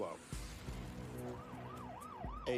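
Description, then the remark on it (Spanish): A tsunami alert siren on a seafront promenade wails in quick rising and falling sweeps over a low engine-like rumble, steady for a couple of seconds. “Tenemos también un sistema en las redes y un sistema de alerta en el paseo marítimo, donde sonarían sirenas.”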